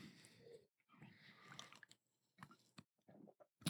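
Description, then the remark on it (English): Someone sips a beer, a Muddy York Brewing Company Working Hard New England IPA, with wet slurping and swallowing mouth noises in several short bursts separated by brief pauses, ending on a sharper, louder gulp. “Ah, oh, sip a beer.”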